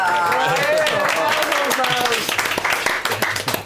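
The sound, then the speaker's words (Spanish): A crowd claps steadily throughout, a dense patter of many hands at a fairly loud level, mixed with voices calling out and cheering over the top. “Un aplauso para él.”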